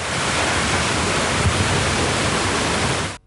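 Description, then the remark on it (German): Steady, continuous splashing of water from a small water wheel at the end of a canal in Murgauer Park, Frauenfeld, a dense rushing wash that holds an even level for about three seconds before cutting off abruptly. No voices. “Aber ab dem Donnerstag hören Besucher vom Murgauer Park nur noch ganz ruhiges Plätschern.”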